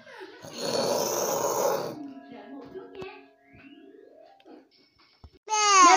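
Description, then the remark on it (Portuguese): A child lets out a loud, growly roar, imitating a lion, for about a second and a half. Softer voice sounds follow, then a bright child's voice cuts in at the end. “Eu vou imitar um leão.”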